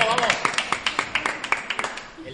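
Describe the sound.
Five people in a small live audience clap together for a couple of seconds, the claps sharp and a little uneven, with a voice briefly audible at the start.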